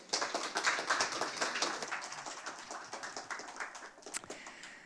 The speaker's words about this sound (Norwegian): Eh, da tenker jeg bare vi gir henne en varm applaus. Vær så god,